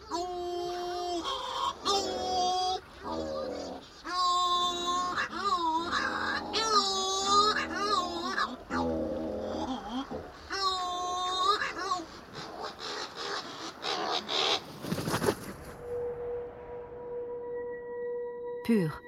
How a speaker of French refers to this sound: Chez les puffins, on s'accouple en chantant. Seuls au monde, les puffins vont se faire la cour toute la nuit.